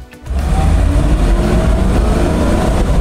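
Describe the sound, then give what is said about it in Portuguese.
A Mercedes-Benz 350 SL convertible with manual transmission and programmable fuel injection runs steadily and loudly while driving, a constant low engine rumble with road and wind noise, starting after a brief quieter moment. “Muito bem, pessoal, Mercedes-Benz conversível com câmbio manual.”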